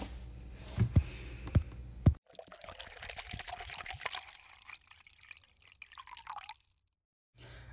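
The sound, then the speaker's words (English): Water pours in a steady stream for several seconds, preceded by a few distinct drips, then the flow stops abruptly; the water is poured to cleanse and charge a crystal. Fairly quiet, with no talking. “But the easiest way to cleanse it and charge it is with water, and it's safe to do so.”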